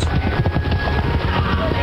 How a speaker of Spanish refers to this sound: Ya podía escuchar el trotar de los caballos.